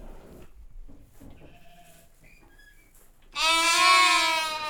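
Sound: sheep bleating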